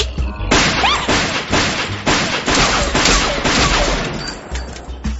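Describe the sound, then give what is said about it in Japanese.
A rapid, sustained volley of gunshots cracks out almost continuously at a firing range, loud sharp reports piling into one another with barely a pause. “どこで射撃を覚えた”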